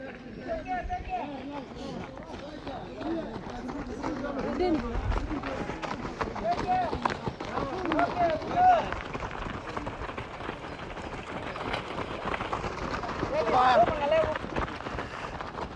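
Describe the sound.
Many runners' footsteps patter quickly and continuously on the track of Tambach stadium in Kenya, a dense rhythmic stream of light strikes, with indistinct voices and some wind in the background.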